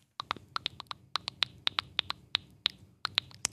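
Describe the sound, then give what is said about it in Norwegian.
A quick, uneven run of sharp, hollow clicks made with the mouth as a thinking sound, with a slight echo, giving an eerie alien-like effect. The clicks are fairly loud, with no talking over them. “Hørte du tenkelyden min? Ja, det var, det var eh, ekkelt. Det var mye av alien-lyden fra Science.”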